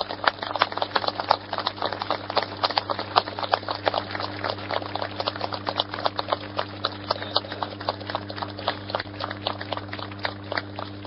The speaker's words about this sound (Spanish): Todavía hay acá parados al costado mío algunos de los que empezaron prendiendo el tacho. Y les pediría, si son tan amables, de brindarle un caluroso aplauso, porque si ellos no están acá, nosotros no estaríamos ahí.